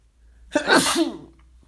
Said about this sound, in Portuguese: Eu vou espirrar, calma, eu vou espirrar.